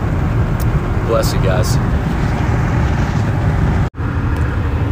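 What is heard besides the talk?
car interior road noise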